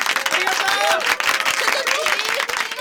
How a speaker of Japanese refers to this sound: みんな拍手